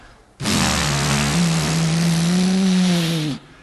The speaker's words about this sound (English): It sounded great before, but afterwards it sounded fantastic. Without the exhaust on it, it was a real racing car.